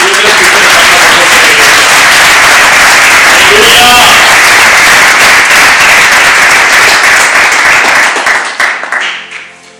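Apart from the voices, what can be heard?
audience applauding loudly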